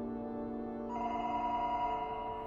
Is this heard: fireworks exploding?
no